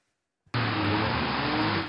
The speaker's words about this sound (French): Sur ces images amateurs, des rodéos incessants, des dizaines de voitures lancées à pleine vitesse enchaînent les dérapages.